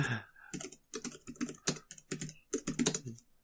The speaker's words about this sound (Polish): Jak słyszysz, klikam, klikam, żeby ci wysłać zdjęcie odpowiedniego A, samochodu. Dobra, ja już nie będę klikał, okej, okay, bo miałem sam to zrobić.